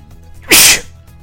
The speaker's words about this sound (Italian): Capita di starnutire in diretta, purtroppo non è la prima volta. Eh, capita di starnutire in diretta. Eh, mi stanno cremando anche gli occhi perché sono raffreddatissimo, come si sente anche dalla voce.